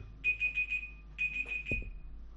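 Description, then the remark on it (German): A one-hour timer alarm beeps in two quick bursts of four high electronic tones, steady and clear, with a brief thump near the end and no talking. “Ich habe vergessen, dass ich einen Timer eingerichtet habe für was anderes.”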